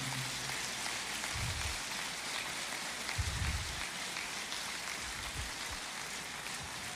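audience applause

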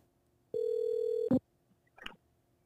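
telephone ringing

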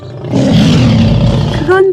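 lion roar

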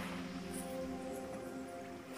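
sea waves

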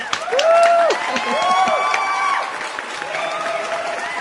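applause

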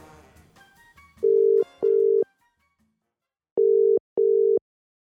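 telephone ringing tone

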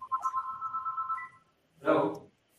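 telephone ringing

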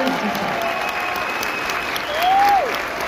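audience applause

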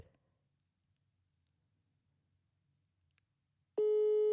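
telephone ringback tone

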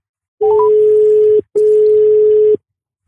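telephone dial tone

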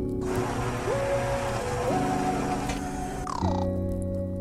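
blender running

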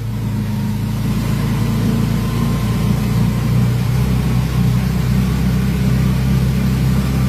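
car engine accelerating

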